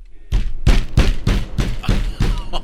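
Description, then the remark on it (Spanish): Loud, heavy knocking on a door: about eight hard, booming raps in a quick, steady rhythm, insistent, with no voices over them. “No, hombre, eh, ya quisieras que que no era el esposo porque cuando estaba teniendo sexo, volvieron a tocar la puerta. Nomás se oía ahí.”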